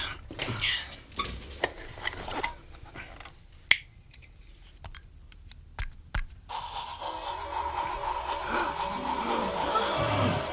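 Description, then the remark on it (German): A few sharp mechanical clicks and clacks, then a train starts to move, heading upward: a steady rumble and whirring builds in and holds loudly to the end, with no one speaking. “Bei dieser Kombination wird der Zug nirgends hinfahren.”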